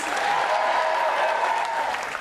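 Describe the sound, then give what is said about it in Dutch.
A crowd claps steadily and loudly for a DJ at a stage show, a dense, continuous wash of applause that holds at full strength for a couple of seconds without pause. “applaus voor …, … is in de house.”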